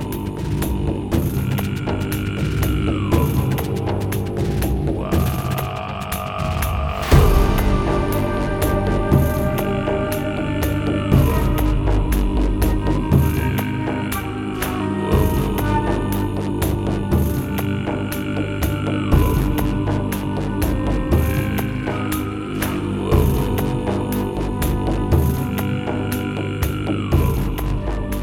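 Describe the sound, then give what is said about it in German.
Steady, meditative music built from deep droning hums and layered sustained tones that slowly glide in pitch, washed in reverb and held at an even, compressed loudness throughout, with no voices. “wie ich dann das, die Mischung gemacht habe, man packt da natürlich dann irgendwie Hall drauf und so weiter und, und komprimiert das Ganze so ein bisschen.”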